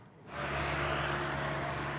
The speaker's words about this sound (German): Gemessen am Rest des Jahres ist das hier ein Stau in Arjeblock. Aber das Meer an Verkehr macht hier niemandem etwas aus. Die Autowesen vom anderen Stern bescheren den Einheimischen ein fettes Plus in der Haushaltskasse.